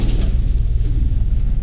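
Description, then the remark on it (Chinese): A deep, continuous rumble of thunder rolls on steadily, heavy low-end energy with a brief brighter crackle near the start, loud and sustained with no voices present. “空中响起了轰隆隆的雷声。”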